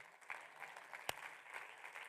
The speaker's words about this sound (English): Would somebody clap your hands and say, "Amen"?